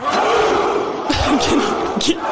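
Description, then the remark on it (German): A single voice imitates a volleyball team's battle cry, shouting loudly for a couple of seconds, with a rough sustained yell that breaks into two sharper, punchier bursts. “Okay, also ihr schreit einfach nur und dann vielleicht manchmal so”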